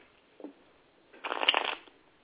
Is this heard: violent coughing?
no